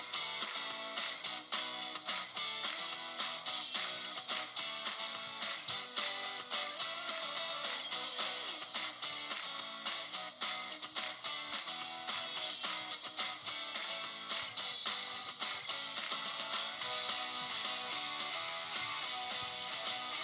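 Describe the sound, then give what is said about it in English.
An upbeat music track plays steadily on its own, bright and loud with dense high-end energy and a driving, consistent rhythm throughout, with no voices over it. “That is our intro outro song.”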